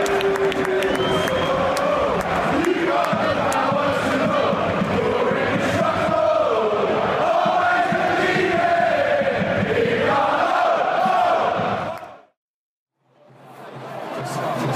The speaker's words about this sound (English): If this works, you're now going to hear the audio of the Watford fans celebrating Ighalo's goal from the other night.